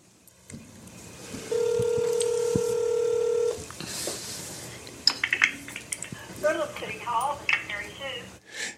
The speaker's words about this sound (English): And, uh, you know, we got a cell phone sitting here. Well, why don't we call? You want to call and, and, see if we can get a little help on this? Okay, I, I, see if somebody will answer the phone.